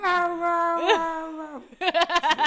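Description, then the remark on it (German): A person's voice imitates a cat's reproachful meow at its owner after being fed in the morning: a long drawn-out whining wail that rises and bends, followed by a quick run of short, choppy yowls, fairly loud. “Und wenn ich morgens runtergekommen bin und ich habe den Futter gegeben, so, wo man denkt, so ohne mich würdet ihr sterben, ja, jault sie mich an mit einem vorwurfsvollen”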